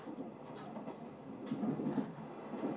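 The sleeper limited express Akebono pulls into Ōmiya Station with a steady rumble of rolling wheels and carriages. The low, continuous noise swells slightly toward the end, and no one speaks.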